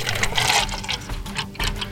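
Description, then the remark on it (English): Hot coffee pours steadily into a white generic styrofoam cup, a continuous splashing gurgle that swells and wavers for about two seconds with no voices. “Let's go ahead and pour a, a, fresh, hot cup of sludge and uh, see how this tastes.”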